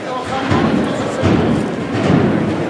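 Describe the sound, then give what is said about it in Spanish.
Drums of a band of bugles and drums, in the Good Friday procession of the Carretería paso de misterio at the end of calle Tetuán, pound out heavy, regular low beats, roughly one per second, over a dense wash of crowd noise and murmuring voices. “Suenan los tambores de la banda de cornetas y tambores de la ….”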